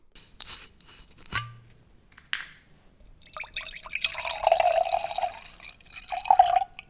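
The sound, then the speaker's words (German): White Riesling wine poured into a glass, preceded by a sharp click of a screw cap and a brief rustle; the steady gurgling stream rises in pitch as the glass fills, with no voices. “Wenn der Riesling ins Glas rieselt, freue ich mich jedes Mal auf eine gaumenfüllende Geschmacksexplosion.”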